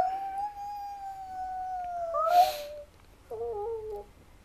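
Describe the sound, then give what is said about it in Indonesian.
Wolves howling: a long, steady howl that lifts in pitch near its end, then a second, shorter wavering howl after a brief pause. Loud, with no talking. “Senyum permaisuri singa dan para pasukan serigala.”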